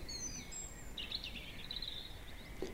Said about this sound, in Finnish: Minä sanon metsälle kuin saamelaiset tuolla takalapissa. Mene terveenä Minusta tuntuu, että pöllö, punarinta, kyyhky, rastaat sanovat minullekin. Mene terveen, pidämme yhteen.